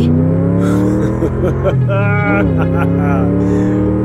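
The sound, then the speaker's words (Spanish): A Bentley's engine roars steadily, its pitch rising and falling as it revs and speeds off, with a voice speaking over the loud, continuous motor noise. “Oye, oye, ¿Puedes bajar la velocidad, por favor?”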